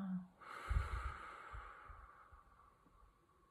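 A long breath of airy, hissing noise that swells quickly and then slowly fades, with a few soft low thumps beneath it and no talking: a deep inhale and exhale during a short guided mindful breathing practice of three deep breaths.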